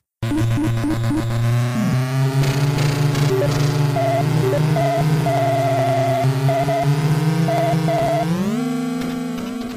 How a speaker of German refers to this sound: Ja, das ist ein bisschen ein Motorsound, ein bisschen Gequietsche beim Driften und vielleicht mal ein Rumpeln, wenn Fahrzeuge gegeneinander fahren, aber mehr ist da halt nicht so.